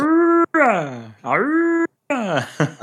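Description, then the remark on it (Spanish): A voice imitates the standard Imperial alarm from Star Wars: a steady held tone, then repeated swooping wails that dip and rise, loud, with brief pauses between bursts. “bueno, eh, aquí me introducid sonido de típica alarma de Star Wars, la alarma estándar del Imperio.”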